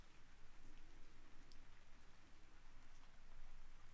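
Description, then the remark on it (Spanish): Steady rain falling in a forest, a dense, even patter of drops with occasional brighter taps on surfaces, fairly soft and continuous with no voices. “Te invito a tener esta imagen, tu bosque, es tu bosque tu lluvia, es tu experiencia.”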